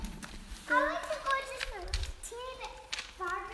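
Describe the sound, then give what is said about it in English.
Young, high-pitched voices call out and chatter inside a tunnel, their tones lingering with an echo, while hollow footsteps knock faintly in the background. “Do you hear how it echoes? Our voice sounds different.”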